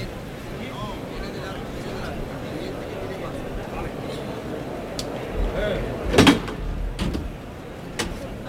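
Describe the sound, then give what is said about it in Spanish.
A heavy wooden toril gate in a bullring bangs and scrapes open in one short, loud burst, with a few sharper knocks after it, over a steady murmur of a large crowd. The gate is being opened to release the third bull of the afternoon for Roca Rey. “Aquí al pasillo de Toriles cuando va a abrir Hermes la puerta.”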